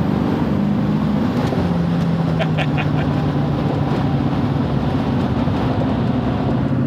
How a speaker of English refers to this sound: one of our most popular projects and includes a lot of cool new cutting edge parts, including Exergy's 14 millimeter pump, our Stealth 64, 150% over injectors, and of course that Borg Warner S488 SXE man, listen to that thing. It is just nasty.